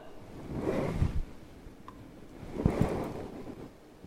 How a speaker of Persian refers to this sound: این صدای لپتاپ هست